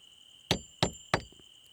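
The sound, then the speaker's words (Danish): Three sharp hammer blows drive a nail into a wooden box in an even, steady rhythm, each a solid knock that dies away quickly, over a faint high-pitched background hum. “Dellekaj holder kassen, mens romkugle hamrer.”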